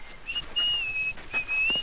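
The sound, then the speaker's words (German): A herder leading a caravan through rocky sandstone mountains whistles his favourite melody: a short, wavering tune of sustained pitched notes, clear, in two phrases with a brief pause between them and no talking. “der Hirte, führte die Karawane an und pfiff dabei seine Lieblingsmelodie.”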